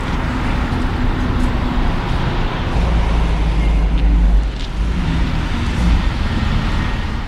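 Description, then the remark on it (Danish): Dense city traffic around a town hall square rumbles steadily throughout, with low engine drone from passing cars and buses and a heavier vehicle swelling briefly in the middle, no voices standing out. “hvor hun vil vække den sjældne planteart til live til akkompagnement af den hissige trafik, der omgiver byens rådhusplads.”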